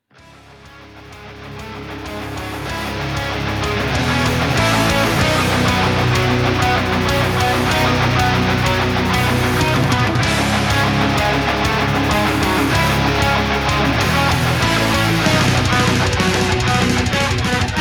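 A heavy metal song fades in over the first few seconds, then plays loud and dense throughout, with thick distorted guitars and pounding drums filling the whole stretch and no talking over it.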